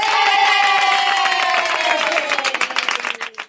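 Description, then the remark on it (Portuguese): A crowd bursts into loud, sustained applause mixed with cheering for the host's young daughter after she sang a song, the dense clapping thinning out near the end into a few scattered claps. “Muito bem, uma salva de palmas”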